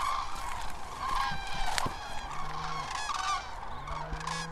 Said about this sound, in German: Erst ist es nur vereinzelt zu hören, das typische Kranichtrompeten, wie Experten es nennen. Dann wird es immer stärker und schließlich sind es Hunderte, Tausende, die über uns hinwegfliegen.